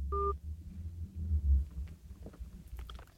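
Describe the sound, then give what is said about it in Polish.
A single short, clear telephone dialing beep sounds at the very start as a call to a professor is redialed live on air, then gives way to a low rumbling line noise with a few faint clicks. No one speaks. “O, i coś nam się tutaj zadziało z telefonem. Jeszcze raz dzwonimy do pana profesora od razu na żywo.”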